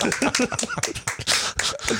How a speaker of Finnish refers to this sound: että nyt annetaan kaikki nuo ilmeet, on ihan täydellinen, eikä näitä pienet aplodit